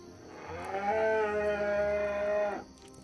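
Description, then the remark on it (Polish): An ox lows loudly in one long, drawn-out call lasting about two seconds, resonant, with no talking around it. “Słyszycie, jak woły bardzo głośno zaczynają wyć.”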